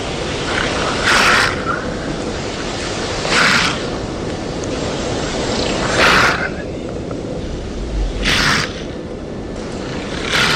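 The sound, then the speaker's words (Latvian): An alarmed porcupine rattles the hollow, open-ended quills on its short tail by tensing its tail muscles, in four harsh, dry bursts spaced a few seconds apart, each a brief shaking rustle over a steady background hiss. “Tātad šīs adatas atkal uztraukuma brīdī vai arī kādu, lai nobaidītu, tiek būtībā sasprindzinot astes muskuļus, tiek drebināts sistas kopā un tur rodas tāda skarba, skaļa skaņa.”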